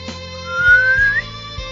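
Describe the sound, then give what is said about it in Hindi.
A shepherd's single short whistle calling his hundred sheep rises steadily in pitch for about half a second, heard over a steady humming drone with a few soft low thumps. “गवाची पेड़ एक आदमी की सौ पेड़ थी वो जिस वेला उन्हें आवाज दिया था”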